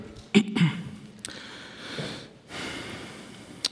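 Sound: throat clearing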